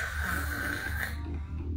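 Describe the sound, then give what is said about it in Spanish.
A steady, rasping snore drones on without a break, low and throaty with a buzzing rattle, moderately loud, with no talking over it. “Pues no, güey, o sea, simplemente pues chingala, pues está roncando ya.”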